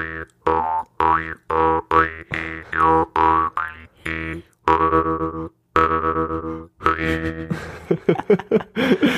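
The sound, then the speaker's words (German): A jaw harp is played, twanging in a steady rhythm of short plucked notes, its droning tone bending with wah-like vowel sweeps, then speeding into a quicker, buzzier flurry at the end. “Da werde ich eine Story posten, die in die Highlights packen und so werdet ihr sehen, wie eine Maultrommel aussieht.”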